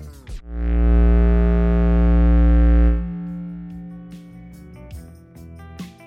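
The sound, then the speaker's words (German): A loud, gritty synth tone distorted by a Parabolic Shaper insert effect in the Massive synthesizer swells in and holds for about two seconds, rich in buzzing harmonics, then drops to quieter, sparse synth notes and clicks. “Als Insert-Effekt im Massive haben wir dann noch einen Parabolic Shaper verwendet. Das ist ein Distortion, also Verzerrungstool.”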